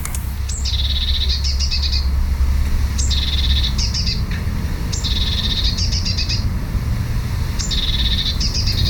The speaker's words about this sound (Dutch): Nou ja, pimpelmees is een heel mooi, heel mooi vogeltje. Normaal klinkt de pimpelmees zo.